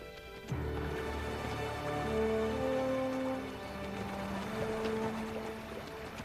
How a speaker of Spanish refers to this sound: ¿Cómo podemos cruzar el río sin problemas? Por favor, Dios, respóndeme. El agua es demasiado caudalosa. no cruzaremos este río. es peligroso para nosotros.